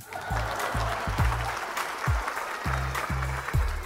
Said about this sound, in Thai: เพราะฉะนั้นสำหรับ EP นี้ขอเสียงปรบมือดังๆให้กับเอพิโซดที่ 11 ด้วยครับผม